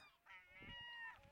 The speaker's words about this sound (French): il n'est pas rare d'entendre les goélands crier et s'égosiller au sein de la ville